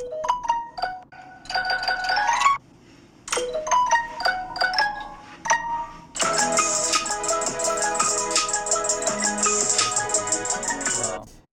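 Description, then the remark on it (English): A Samsung phone notification tone, notification 13: bright, plucky electronic notes in quick melodic bursts, then a fuller, shimmering flourish that rings on for several seconds, loud with no talking. “Samsung notification 13.”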